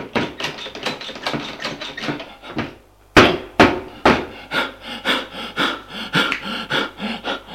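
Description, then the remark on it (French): An exhausted, out-of-breath woman pushes and shoves at a door locked with a key: a rapid series of loud thuds and rattles, with a sharp bang midway, and heavy panting breaths between the blows. No one speaks. “Elle a beau pousser, rien n'y fait.”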